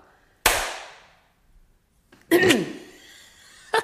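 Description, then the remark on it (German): A single sharp hand clap with a short ringing decay, followed after a pause by a brief burst of voice-like sound and another quick snap at the end. “Also, ich klatsche. Selber.”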